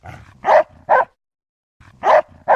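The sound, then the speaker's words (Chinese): A dog barks fiercely toward the outside of a bedroom door in four loud, sharp bursts: two quick barks, a brief silence, then two more, with a low rough rumble like growling between them. “但是那只狗狗有时候都会莫名很凶地对着我房间门外吠。”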